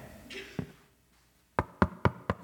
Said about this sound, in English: I'm sure like in college, I knocked on the wrong dorm door and somebody answered.